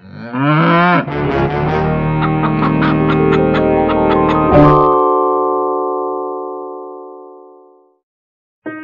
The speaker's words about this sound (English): In the background, he heard the cows busy at work. Click, clack, moo. Click, clack, moo. Clickety clack, moo.